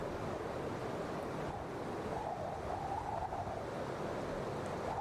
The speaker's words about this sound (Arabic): نيفلهايم كان مكان ضلمة جدا وسط الضلمة دي كلها انت ما بتسمعش أي صوت غير صوت الهواء دايما في عاصفة تلج شغالة في نيفلهايم